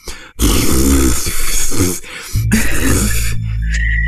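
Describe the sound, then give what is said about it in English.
A voice imitates terrible whistling that sounds like spitting, a sputtering, spitting sound in two loud, noisy bursts with a short break between them, with no other sounds. “spitting”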